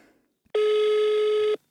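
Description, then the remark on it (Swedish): A single steady electronic ringback tone sounds for about a second as someone phones a paid fortune-telling line, loud and clear, then stops, with near silence before and after and no voices. “Okej, då ringer jag.”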